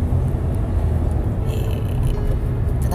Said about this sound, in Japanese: 今日は昼から仕事なのでまた車の中からお送りします